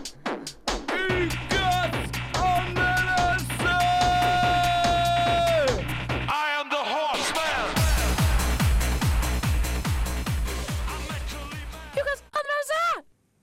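A rap track plays loud, with a rapid vocal delivery riding over a heavy bass line and a steady beat that cuts off abruptly at the end.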